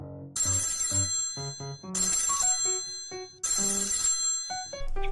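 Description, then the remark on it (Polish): A phone ringtone plays loud, a bright electronic melody repeating in two sweeping bursts with short gaps, no voices over it. “O, telefon już działa.”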